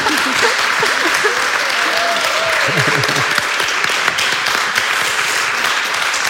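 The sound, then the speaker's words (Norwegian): Loud, continuous applause from a crowd after the announcement of a grant of nearly 400,000 kroner for the project "Dyrk et vennskap". A dense, steady patter of many hands lasts several seconds, with a few voices calling out and cheering underneath. “Jeg hører ingen applaus.”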